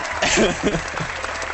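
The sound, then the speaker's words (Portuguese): A burst of audience applause like that of an American sitcom, a dense wash of many hands clapping at steady volume for a moment, with a voice talking faintly underneath. “A pessoa entra ali pela porta, sorri pra plateia e todo mundo bate palma, assim, igual sitcom é. americano.”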